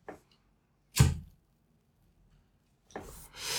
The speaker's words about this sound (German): Richtiges Sound für ein Feuerzeug.